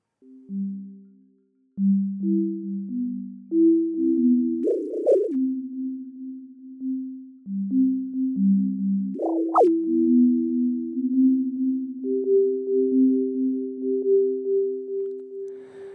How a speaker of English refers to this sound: First parameter on this section is the delay itself. That's the time our signal needs to repeat itself. We're starting with 300 milliseconds and going down to 30.